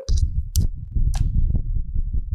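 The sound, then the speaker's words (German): Muffled thumps and scraping as a dog paws, bumps against and licks a microphone during a recording, with a few sharper knocks standing out over a steady low rumble of handling noise. “Sie haut gegen das Mikrofon. Hört man das?”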